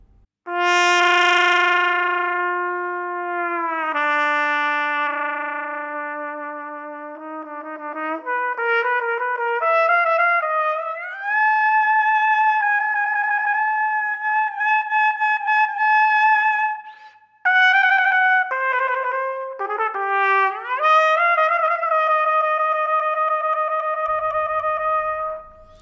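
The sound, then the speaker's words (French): Brass instruments fitted with Purdy mutes play the opening of the second version of Benoît Menut's One Shot, holding long, buzzy tones that slide and bend between pitches, loudly and continuously for the whole stretch with a brief break near the end and no voices. “Écoutons donc euh, le début de la deuxième version, donc avec euh, Purdy Mute de One Shot de Benoît Minute.”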